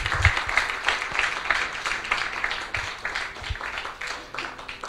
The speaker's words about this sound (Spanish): Somos la iglesia de Dios. ¿No le das un aplauso, hermano? Somos la iglesia de Dios.